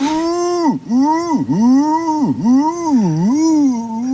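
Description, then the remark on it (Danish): A person imitates a wood pigeon's call, a loud run of hooting coos that swoop down and back up in a steady, rhythmic pattern for about four seconds. “Ringduvan.”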